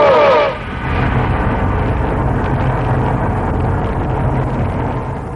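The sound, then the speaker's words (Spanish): A Saturn rocket lifting off after a countdown with a thunderous, continuous roar, a dense low rumble that holds steady for several seconds after a brief tonal burst at the start. “El cohete Saturno, envuelto en un trueno que estremece la Tierra, se eleva orgulloso por el aire.”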